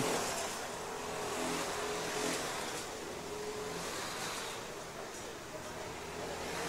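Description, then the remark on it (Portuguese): A steady, buzzing racing kart engine drones on with a faint rising whine as the kart accelerates along the track during a seven-hour race, over broad track noise, with no one speaking. “Sonic segue aí acelerando, segue na pista, não tem que parar não”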